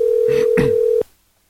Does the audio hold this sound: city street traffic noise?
no